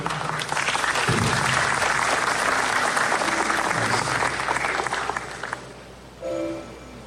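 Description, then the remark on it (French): An audience at an investiture in Haiti breaks into dense, steady applause for a former president present there, holding for about five seconds before tapering off, followed by a brief voice at the end. “Le mérite il pas d'être applaudi, s'il vous plaît.”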